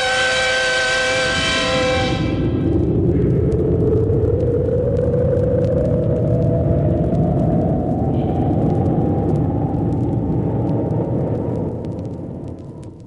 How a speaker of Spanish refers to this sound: Desprendiendo un haz de fuego, el cohete se eleva majestuosamente hacia el cenit, donde ha de coincidir dentro de dos días y medio con el satélite lunar.